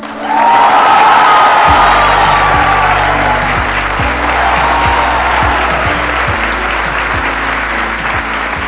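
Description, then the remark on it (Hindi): A crowd claps loudly and steadily for several seconds as a performer is welcomed, with whoops and a rising whistle-like cheer near the start, while a low, regular thumping beat pulses underneath. “let's give an energetic and warm welcome to the one and only”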